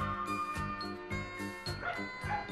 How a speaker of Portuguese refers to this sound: Eu tô ouvindo até os cachorros.